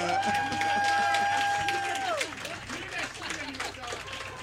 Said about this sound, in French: Donc, euh, c'est en ayant l'air très intelligent que je vous demande, mesdames et messieurs, d'applaudir la personne qui va sûrement commencer en se présentant, notre humoriste de la semaine.